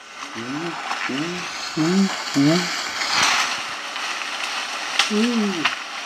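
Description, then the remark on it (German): Soft, short chimpanzee alarm calls given on finding a Gabon viper in a natural situation in Thai National Park, four quick hoots in a row and then one more after a pause, heard against a steady hiss of forest background noise; the calls were slightly edited in a studio. “Da kann man sehr schön diese sanften Gefahrenrufe hören.”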